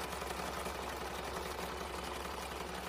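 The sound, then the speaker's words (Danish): Large banknote printing machines run in the banknote printing works of Denmark's Nationalbanken, a huge room where both banknotes and coins are made: a steady, loud mechanical drone, with a fast rhythmic clatter and low thrumming pulse underneath. No one speaks. “Lige nu så står vi i sædeltrykkeriet i Nationalbanken, som er øh, sådan et kæmpestort rum.”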